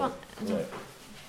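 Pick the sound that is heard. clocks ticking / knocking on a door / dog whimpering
dog whimpering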